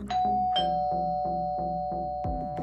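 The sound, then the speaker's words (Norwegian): A doorbell rings out a melodic chime, about eight bright notes struck in a steady rhythm with tones that linger and overlap. It is loud and clear, with no talking. “Det ringer på døra.”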